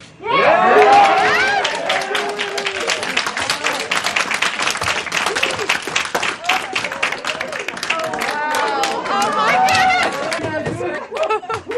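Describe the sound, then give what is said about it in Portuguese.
A team of technicians bursts into sustained applause with cheers and excited shouts as one of them reads the list of tasks the Ingenuity helicopter performed on its first flight on another planet; dense clapping continues throughout alongside overlapping chatter and whoops. “A equipe de técnicos começou a aplaudir quando um deles leu a lista de tarefas que o helicóptero havia realizado.”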